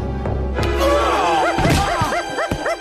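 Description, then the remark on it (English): A dog, Snowy, barks and yips in quick repeated bursts, loud, amid thumps, whacks and crashing noises of a physical struggle aboard a ship. “Oh, no, no, get that dog away from me!”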